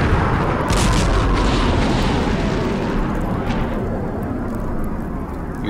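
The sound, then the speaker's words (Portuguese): A sustained roar of overlapping missile explosions across a base, dense low rumbling booms with bursts of crackling debris, loud throughout and easing slightly toward the end. No voices. “Quando Brian olhou para cima, uma chuva de mísseis caiu por toda a região, explodindo cada centímetro da base.”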